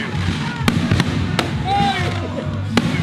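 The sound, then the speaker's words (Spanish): Three sharp explosions from a Christmas fireworks show at the Eugenio María de Hosto burst at irregular intervals, each a quick loud crack, over a steady background of crowd noise and people talking. “estamos viendo un show de fuegos artificiales.”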